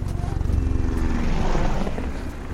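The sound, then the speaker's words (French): Two Skyraider AD-4 single-engine propeller military aircraft drone overhead, their steady throbbing engines loud, with a rhythmic low-frequency pulse that swells slightly in the middle before easing off. No one speaks. “Un autre H-34 suit, juste derrière, ainsi que deux avions Sky Raiders AD-4, des modèles éprouvés, à hélice et moteurs centrales unique, très adaptés au maraudage dans ces reliefs d'apocalypse.”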